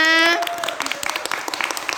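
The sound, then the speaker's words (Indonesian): An audience, asked by the host to applaud for everyone present, breaks into applause, a dense, crackling patter of many hands clapping at a steady level, just after a short sustained voiced tone fades out at the very start. “Oke, tepuk tangan dulu buat kita semua.”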